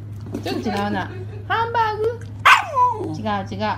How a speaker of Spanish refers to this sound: Hamburger. Hamburger. Dice hamburger. Sí, güey. Hamburger. Hamburger. Un perro que dice hamburguesa.